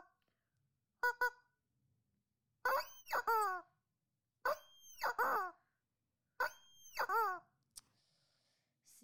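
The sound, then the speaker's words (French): A rubber chicken toy squawks loudly: one short honk, then three long, strained, wheezing squeals that bend downward in pitch, separated by short pauses, ending with a faint click. “Et son arme de mêlée qu'il a, c'est un poulet en caoutchouc qui fait un bruit bizarre comme celui-là.”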